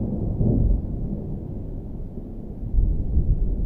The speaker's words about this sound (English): these massive thunderstorms that would come in in the summer and make these booming thunderclaps that would echo around in the valley